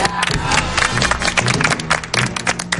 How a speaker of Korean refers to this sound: 와, 진짜 오늘 방송이 89회. 와, 대박. 야, 서로에게 박수 한 번씩 쳐.